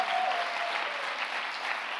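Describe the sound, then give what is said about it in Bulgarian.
A church audience claps together during a sermon in a steady, dense wash of applause that holds an even loudness for the whole two seconds, with no voices standing out. “О, ако ръкопляскаш, ръкопляскаш, като че наистина вярваш.”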